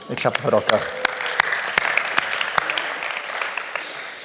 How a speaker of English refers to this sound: Er so I just want to applaud you guys. Thank you.